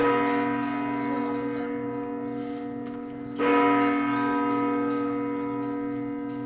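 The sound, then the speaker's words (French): A church bell tolls in slow, resonant strokes striking three o'clock, each deep ring hanging in the air and fading before the next clang. It sounds fairly loud and spacious, with no one talking. “Une autre cloche qui rappelle que c'est bien 3 heures.”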